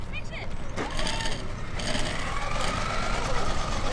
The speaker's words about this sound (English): That sound you hear is an RC car about the size of a loaf of bread and is kicking up rocks, buzzing around the outdoor track.